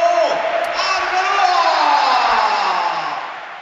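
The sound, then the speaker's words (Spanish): A huge football stadium crowd roars and cheers as Cristiano is substituted off and Arbeloa comes on, a sustained, dense wall of voices, swelling slightly in the middle and holding steady loud throughout, with no single voice standing out. “Se va Cristiano, aplaude y ahí sale Arbelo, escuchad.”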